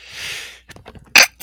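A breathy inhale builds for a moment, followed by a few small catches of breath and then a single sharp, explosive, loud sneeze, with no talking.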